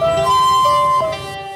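A railway level crossing warning signal sounds loud, a steady electronic tone that briefly shifts pitch, over a low rumbling background with no voices.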